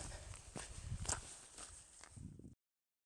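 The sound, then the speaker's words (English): Several heavy footsteps in big boots squelch across wet, soggy farmland fields at an uneven walking pace, with rustling between steps and no talking. “I'm glad I've put my big boots on today because it is pretty soggy underfoot.”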